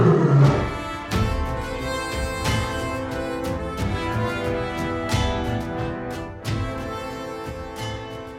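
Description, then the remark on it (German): A lion roars loud, a deep rumbling growl that fills the space for several seconds, with rough pulsing bursts and no talking. “Und als ihr dann drin seid und die Tür zuschlägt, merkt ihr, dass im nächsten ja, Gitterräumchen sozusagen rechts neben euch scheinbar schon der Löwenkäfig ist.”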